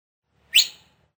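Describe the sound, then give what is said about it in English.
A single sharp, high whistle from a man calling his horse, Menowar, short and clear, rising quickly and then fading away, with no talking around it. “whistled for Menowar.”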